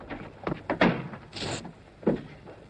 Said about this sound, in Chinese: 波洛先生沉着的敲了敲墙壁。瑞斯上校听到求救的暗号